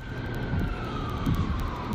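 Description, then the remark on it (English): A distant siren wails with a slow, steady pitch, nearly buried beneath loud, gusting wind that rumbles and buffets continuously throughout. “You can hear the wind blowing and sirens in the background.”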